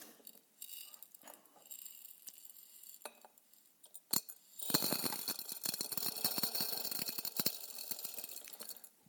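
Small hard objects pour into a glass jar already holding golf balls: a few scattered clinks, one sharp knock, then a dense, steady stream of rattling and tinkling against glass lasting several seconds, with no talking.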